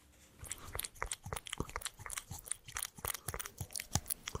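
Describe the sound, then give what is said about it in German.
A domestic cat crunching dry food from its bowl, with rapid, irregular crisp bites and chewing clicks repeating steadily throughout, no voices present. “So klingt es, wenn sich eine Hauskatze über ihren Fressnapf hermacht.”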